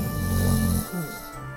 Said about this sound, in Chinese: 巨人马上呼噜噜地睡着了。